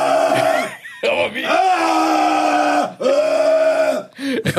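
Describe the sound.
A man, stepping back from the microphone, imitates the roaring yell of a concert-goer at a band's show: several long, loud, strained "aah" bellows with brief gaps between them, sustained and harsh, ending in a couple of shorter bursts.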